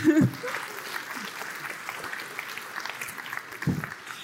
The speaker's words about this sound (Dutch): Eh, applaus voor